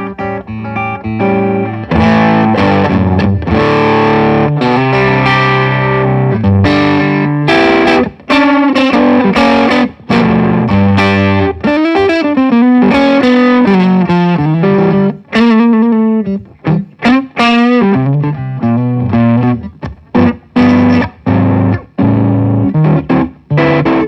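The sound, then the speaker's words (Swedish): An electric guitar plays through the 'Gettostompen' distortion stompbox pedal, which is fairly touch-sensitive, a gritty, saturated tone with sustained chords and choppy riffs, loud and continuous for the whole stretch with no talking over it. “Så här är gettostompen då. Så den är också ganska anslagskänslig.”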